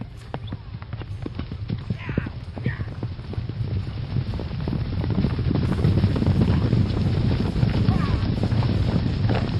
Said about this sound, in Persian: روزی شاهزادهای با همراهانش از سفر به خانه برمیگشتند. صدای سم اسبها گوشها را کر می کرد و خاکی که از قدمهایشان بلند می شد چشمها را کور.